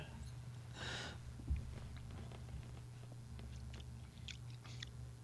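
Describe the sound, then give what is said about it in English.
A brief slurping sip of a malty drink, followed by quiet mouth clicks and swallowing sounds over a steady low hum. “I'm going to have another sip of it just to see if the flavor profile has changed.”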